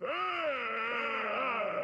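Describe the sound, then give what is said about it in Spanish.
A drawn-out, guttural moaning vocalization wavers in pitch as it holds steadily for about two seconds, loud, with no speech around it. “Y conforme nos vamos acercando, logro escuchar estos sonidos gruesos, guturales.”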